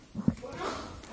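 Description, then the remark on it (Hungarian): A single quick sneeze, with a sharp nasal burst followed by a short trail of breathy noise. “Egészségedre. Ez, ez férfias volt.”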